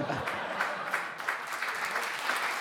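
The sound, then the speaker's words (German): Steady applause from a live audience for comedian Henrik von Bülzingslöwen, a Comedy Prize winner, on stage: a dense wash of many hands clapping at a fairly even, moderate level throughout, with no voices standing out. “Guck mal, der Applaus.”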